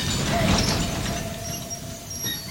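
A train bound from Paris for the Alps rolls along on its rails with a steady, dense rumble and a faint thin squeal riding over it, fairly loud and continuous throughout, with no voices.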